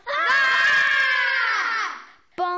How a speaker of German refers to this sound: Und dann ein Aufschrei.